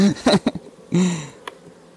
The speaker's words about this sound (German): Dadurch beruhige ich die Bienen ein bisschen.